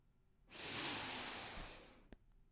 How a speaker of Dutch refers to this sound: Laten we dan eens nog even een diepe ademhaling nemen.